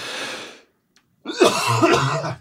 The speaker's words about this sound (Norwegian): Men mm. nå er det oss to hosterne. Ja. Det kan vi si til publikum. Du og jeg har jo diskutert hosting i studio. Mm. Og du og jeg er de to jeg vet om som hoster mest mm. i studio.